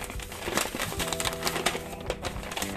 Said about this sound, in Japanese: 物はねあのパッケージが紙で包まれていて、えーと、甘みとかコクのところが、ね、見えないようになっていましたでで、えー、ちょっともったいないんですが紙のパッケージを開封します